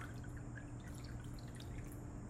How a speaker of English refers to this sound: Hey, I have a little space. Now, what happens if I take Mr. Mason jar now and pour it into the cup?